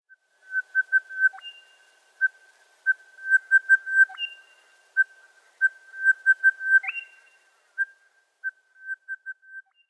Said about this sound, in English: Friends, I recently visited one of my favourite birdwatching spots, Greater Bendigo National Park on Dja Dja Wurrung country. For the first time ever, I heard the interesting call of the crested bellbird.